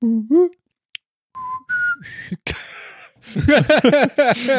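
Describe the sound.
A person whistles and vocalizes an imitation of fax machine tones: a few rising steady beeps, a short noisy burst, then a rapid run of warbling, chirping sweeps, fairly loud.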